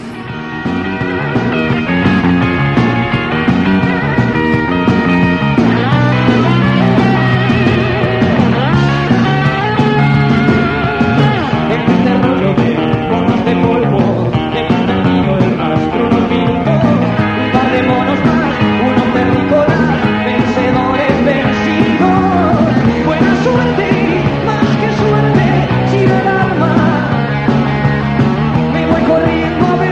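A loud rock song plays steadily throughout, a full band with a lead vocal driving over guitars and drums at a constant, energetic level with no pauses.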